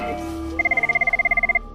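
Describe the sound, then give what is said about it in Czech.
An emergency call line telephone rings at a dispatch centre with a rapid electronic trill, a fast, steady pulsing burst lasting about a second, clear over a low background hum. “Jak sám slyšíte, teď to tady začíná zvonit.”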